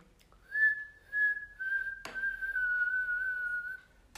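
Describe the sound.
A person whistles a short, high tune of long, mostly steady held notes with slight pitch wavers, fairly loud, broken once by a sharp click. No one speaks.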